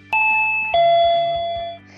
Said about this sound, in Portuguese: Toca aí a campainha.